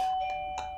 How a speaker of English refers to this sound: um, that's the doorbell there'll be a delivery and they will leave it and it will be fine um, Do you need to get it? No, it's fine.